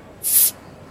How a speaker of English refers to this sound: So pop a bottle.